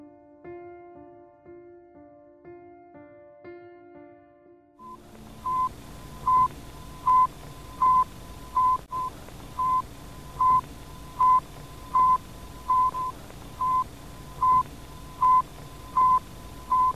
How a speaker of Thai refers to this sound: ผ้าซักเสร็จแล้วครับ เอาไปอบได้แล้วไม่ใช่นะครับ เมื่อกี้เนี้ยเป็นเสียงของสัญญาณที่ถูกส่งลงมาจากดาวเทียม สปุกนิกนะครับ ที่สหภาพโซเวียตในตอนนั้นเนี่ยส่งขึ้นไปโคจรรอบโลกแล้วก็ตัวดาวเทียมเนี่ยเขาติดตัวส่งคลื่นวิทยุเนี่ยลงมาด้วย